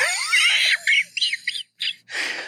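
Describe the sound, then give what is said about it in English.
A voice mimics a wheezing snicker like Muttley the cartoon dog, as if wheezing while tying a shoe: a run of breathy, high-pitched squeaky huffs in short bursts, ending in a longer raspy exhale, with no words spoken. “if you're wheezing”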